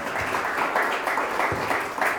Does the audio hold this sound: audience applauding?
yes